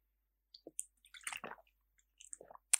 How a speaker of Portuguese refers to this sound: Gole na água.